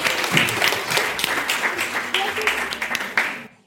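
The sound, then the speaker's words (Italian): A studio audience of the show Interviste Impossibili bursts into steady, dense applause for an applause meter, saluting Harry Potter, with many hands clapping at once, holding fairly loud and full for a few seconds before cutting off abruptly. “Applausometro.”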